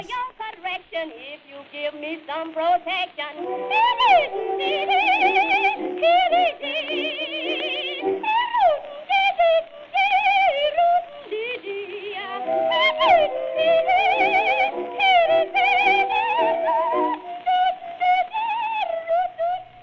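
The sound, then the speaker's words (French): Wordless scat singing from a 1923 song: a voice warbles quick, birdlike runs and sliding notes, continuous and fairly loud, with the thin, band-limited sound of an old recording. “C'est pas exactement du boop boop comme Betty Boop, mais c'est quand même du scat.”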